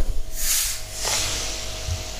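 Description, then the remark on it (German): A bottle of carbonated water is twisted open with two sharp bursts of hissing gas, the first long and airy, the second shorter, with no talking. “wir haben hier jetzt eine Flasche offen aufgemacht.”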